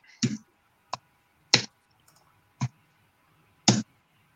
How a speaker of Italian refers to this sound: Allora facciamo uh, reazione. Io parto da 3 e quindi tiro due dadi.